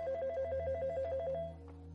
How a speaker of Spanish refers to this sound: Sorpresa, que a las 3 de la mañana, 3, 4 de la mañana, el teléfono volvía a sonar desde esa misma habitación. ¿Quién hacía llamadas desde una habitación vacía?